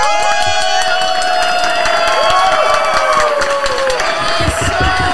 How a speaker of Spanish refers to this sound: Este, todos se me ponen de pie. Special guest in the building. Todos se me alborotan me la reciben con un fuerte aplauso a esta chica.